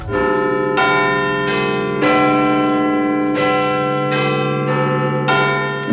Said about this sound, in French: son port d'attache, c'est Londres, ou plutôt... Ben, c'est Big Ben, ah exactement.